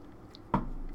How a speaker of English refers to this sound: Let me grab some water.